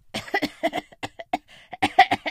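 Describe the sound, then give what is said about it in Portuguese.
A fit of heavy coughing, a rapid string of about a dozen harsh bursts with brief gaps, performed by a voice imitating the cough of the character Caio Miolo Mole, who smoked in secret in the garage. “Ele estava com uma baita tosse.”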